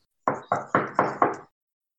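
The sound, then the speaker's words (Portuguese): Five quick, evenly spaced light knocks on a door, like someone calling for a person inside, fairly crisp, each with a short hollow ring, followed by silence. “Eu vou dar uma, uma pequena batida na porta, sabe?”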